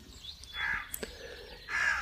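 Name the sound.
raven cawing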